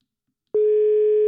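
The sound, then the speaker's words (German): After a moment of silence, a steady single-pitched telephone tone sounds, clear and fairly loud, as a phone call is placed to bring a person into the conversation remotely and begins to ring through. No voices are heard. “Wir holen ihn jetzt per Telefon dazu.”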